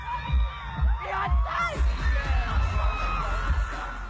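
A man lets out loud, wavering screams close to the recorder, rising over a roaring concert crowd while deep bass thumps pulse steadily underneath.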